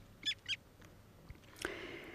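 A long-tailed skua gives two short, high, nasal calls about a quarter second apart, followed by a brief harsher, drawn-out cry over faint background noise.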